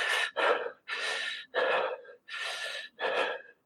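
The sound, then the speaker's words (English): A person imitates a young girl's rapid, open-mouthed breathing: six quick, loud, breathy in-and-out huffs in an even rhythm, with no talking. “while she was sitting there i looked at her and i noticed that a her mouth was open and b she was breathing really fast. So she was going something like this.”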